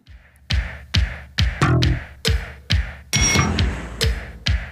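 An industrial pop track driven by hard, clanging metallic hammer hits, struck in a steady pulse roughly twice a second, each blow ringing bright over a booming low beat with a shimmering synth swell midway.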